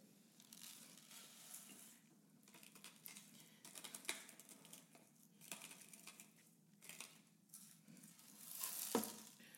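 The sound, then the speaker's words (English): A steady granular crackle and rustle, like salt being shaken or scattered, runs for about ten seconds with irregular louder bursts and a sharper swell near the end. No one speaks. “Sorry, what you hear is the salt.”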